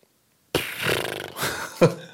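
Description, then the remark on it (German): A person vocally imitates a muffled fart as made while sitting on a soft couch, which swallows the sound: a low, buzzy, sputtering sound lasting about a second and a half, ending in a brief louder burst, made alone. “Und dann habe ich ihm erklärt, wenn du auf so einer soften Couch sitzt, dann wird der Ton halt eher geschluckt. Dann ist es mehr so ein”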